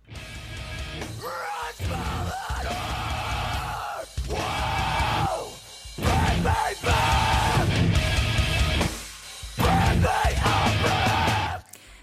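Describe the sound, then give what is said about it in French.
A chaotic mathcore metal track from a 1999 album: dense, loud, distorted instruments lurch through abrupt stops and restarts while harsh screamed vocals bark over the top in jagged bursts. “Monument de musique technique et agressive, l'emblème d'un album qui se fout éperdument des codes et qui a un son un peu dégueu, mais en fait totalement brillant.”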